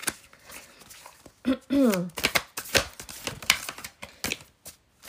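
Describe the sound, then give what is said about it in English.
A deck of oracle cards being shuffled, with crisp bursts of rapid riffling and flicking throughout, and a brief voiced murmur early on. “I love the sound of shuffling cards.”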